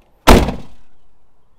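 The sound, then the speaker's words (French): A heavy chest lid slams shut outdoors in a single loud thump, its hollow resonance dying away over about half a second into quiet. “Alors, son seul fermeture coffre extérieur.”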